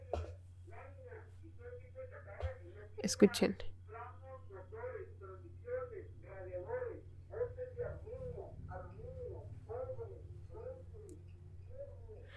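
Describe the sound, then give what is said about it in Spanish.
A scrap metal buyers' truck loudspeaker call drones on steadily, a repetitive amplified chant over a constant low engine rumble, with a brief voice cutting in once. “Uy, escuchen, los del fierro. Más tercer mundista no se pudo escuchar este podcast.”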